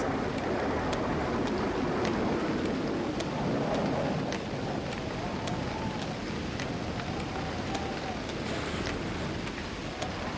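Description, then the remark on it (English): Wind howls and whips over crashing, rolling waves at a beach as a summer storm comes on, a steady, loud, rushing roar with a faint wavering whistle rising and falling and the surf churning continuously underneath. “Quick, grab your towels as the wind whips and howls as the waves crash and roll.”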